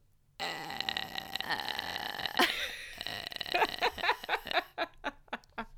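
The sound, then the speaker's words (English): A person vocally imitates a creature that sees using sound like a bat, first with a long, harsh creaking drone like an unoiled door being opened, then with a run of sharp, rhythmic clicks. Fairly loud, with no other sounds. “If you hear one clicking, you gotta hide. That's how they spot you.”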